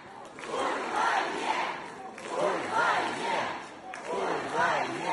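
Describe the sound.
A large concert crowd at a pop band's concert in Saint Petersburg, Russia, on Friday evening chants an anti-war slogan in unison, roughly 'screw your war', voices swelling in rhythmic waves of roughly two-second phrases, loud and sustained with a steady hiss of noise behind them.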